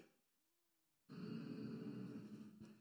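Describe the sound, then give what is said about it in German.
After a brief near-silence, a crowd of children and adults bursts into loud, sustained group humming to show they look forward to presents, a thick droning buzz of many voices that holds steady until the end. “Okay, die Kinder, die haben laut gebrummt.”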